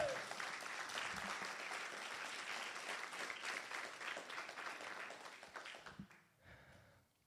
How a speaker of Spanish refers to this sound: ¿Cuántos lo creen? Den un aplauso fuerte a Jesús si usted lo cree.